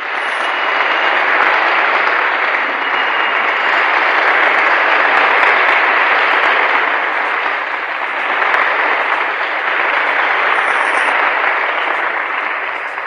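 Steady audience applause fills the whole thirteen seconds, a dense wash of many hands clapping at once, loud and sustained with slight swells, no voices standing out.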